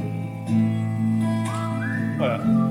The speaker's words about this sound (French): Le sifflement est sur la cassette d'origine. Vous m'entendez siffler à l'âge de 16 ans.